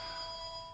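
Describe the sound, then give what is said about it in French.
The studio telephone at Geneva Live Radio rings with a steady, bright electronic tone that holds for the whole brief moment, fairly quiet and heard on its own with no voices. “c'est le téléphone du studio qui sonne, parce que tout de suite il y a des réactions.”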